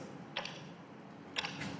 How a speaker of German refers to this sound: Sie tickt. Und sie tickt. Und sie tickt. Und sie tickt. Die hört gar nicht auf zu ticken, außer wenn die Batterie leer ist, aber dann ticket andere Uhren weiter.